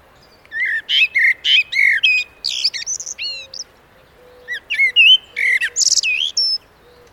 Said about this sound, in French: Il est 5h30. Mais pourquoi Merle Noir as-tu mis ton habit de concert